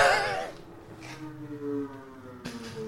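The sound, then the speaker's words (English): A jet plane drones overhead outside, a steady low engine hum with a faint whine that persists through the whole moment, muffled. “you hear the fucking jet plane outside?”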